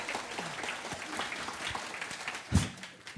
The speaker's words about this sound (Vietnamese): Ok, stand up. Xin một tràng pháo tay cho bạn đi ạ.